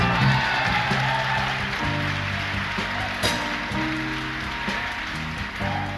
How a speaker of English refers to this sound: I said, how about a nice round of applause for the band? Let's give it to them, all right?